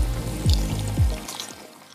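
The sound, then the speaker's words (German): Water from the world's largest indoor waterfall, inside an airport, pours and splashes steadily, with a few gurgling surges rising and falling over about two seconds. It is moderately loud, and no one speaks. “Also der Flughafen ist total besonders mit seinen ganzen tropischen Pflanzen, Kinos, Swimmingpool und der hat auch den größten Indoor-Wasserfall der Welt.”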